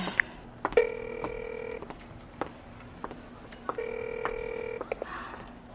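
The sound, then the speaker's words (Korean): Two bursts of a telephone ringback tone from a call placed at an airport to a phone that is switched off, each a steady warbling electronic ring lasting about a second, separated by a pause, heard clearly over faint background hum with a few clicks. “디는 공항에 도착하자마자 비에게 전화를 걸어보았다.”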